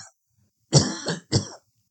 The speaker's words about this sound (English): wow, air just made me choke.